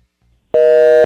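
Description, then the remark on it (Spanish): A single loud, steady telephone line tone on a phone call sounds for about half a second after brief quiet, a flat electronic beep with a buzzy edge that cuts off cleanly. “Adoro ese, adoro ese sonido. Indica que está vivo el teléfono.”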